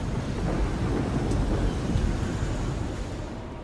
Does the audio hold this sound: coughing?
no